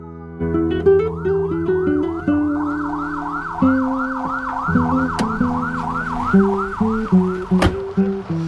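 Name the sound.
police car siren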